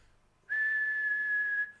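A person whistles one steady, sustained note for about a second, clear, with no talking around it.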